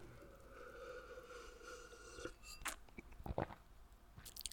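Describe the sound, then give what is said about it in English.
Quiet mouth sounds of someone taking a sip of a drink: soft slurps and a few wet swallowing clicks, with a faint steady hum in the background and no talking. “Just take a sip of my my drink actually on while we're on.”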